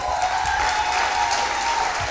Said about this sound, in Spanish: Yo quisiera que le diéramos un súper aplauso.